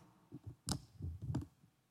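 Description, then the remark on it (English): A $10 paper bill is crumpled up, giving a few short, crisp crackling bursts spread over a couple of seconds, with no one speaking. “You see, even though we might feel like this, crumpled, broken, dirty, stepped on.”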